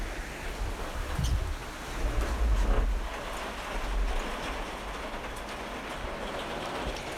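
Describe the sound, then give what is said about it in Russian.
Steady, dense hiss of heavy rain runs through the whole recording, with a deep rumble of thunder swelling and rolling in the first few seconds before fading back under the downpour. “О, грозы. Очень люблю. Да, сейчас воды, конечно, нальется.”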